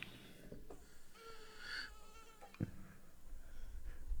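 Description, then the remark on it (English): A person imitates a buzzing fly with their voice, a wavering whine that rises and dips in pitch for several seconds, broken by a couple of soft clicks and thumps. “Sounds like the movie The Fly with him catching a bug. More flies than mosquitoes.”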